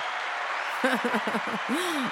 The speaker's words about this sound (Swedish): Du får en liten applåd.